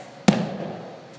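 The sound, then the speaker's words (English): A single heavy thud of feet landing on a yoga mat as a person jumps forward to the top of the mat, loud, with a short low rumble trailing off afterward; no voices. “when you came to the top of the mat, most of your students jump forward and they sound like this”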